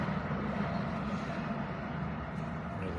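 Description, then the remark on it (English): A steady, low engine rumble from a car coming up the street, continuous for the whole stretch, with no voices over it. “This car's coming up.”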